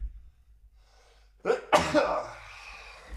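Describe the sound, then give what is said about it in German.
A single sneeze: a quick sharp intake, then an explosive burst trailing off into a breathy exhale, with quiet background before and after and no talking. “Gesundheit! Danke.”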